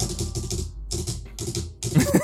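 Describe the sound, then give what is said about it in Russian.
Rapid computer keyboard clicking comes in several quick bursts separated by brief pauses, close and fairly loud, with no one talking over it. “Сейчас я клавиатуру выключу, буду это...”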